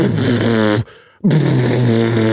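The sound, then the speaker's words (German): A voice imitates the distorted, overdriven bass buzz heard as interference on a recording: two loud, raspy low drones, split by a brief pause of near silence. “Aber so klang, ja, es klang über, genau, es klang übersteuert und deswegen habe ich gedacht, das ist irgendwie eine komische Aufnahme.”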